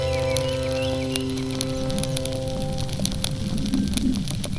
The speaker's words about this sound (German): Für diese Episode hat der Künstler Markus Meder Geräusche des schmelzenden Frühlingsschnees in Geis im Kanton Appenzell Außerrhoden aufgenommen.